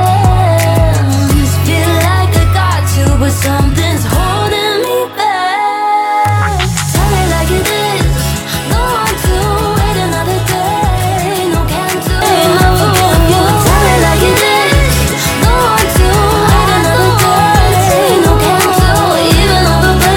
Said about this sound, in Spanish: una cancioncita pop para que vean que aquí es la reunión de todos los sonidos y tenemos para todos los malditos gustos.